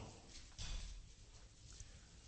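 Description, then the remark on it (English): Soft, scattered rustling of Bible pages being turned by an audience looking up Psalm 19, with one slightly louder flurry early on, then quieter shuffling; no one speaks. “I can hear the pages.”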